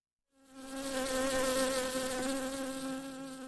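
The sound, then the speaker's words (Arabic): A bee buzzes in a steady, wavering drone, its pitch wobbling slightly as it hovers around a person's face, rising in after a brief silence and staying loud throughout, with no voices. “وبينما كان ينظر إلى قدمها ليقدر قياسها ظهرت نحلة فجأة وراحت تحوم حول وجه نامي”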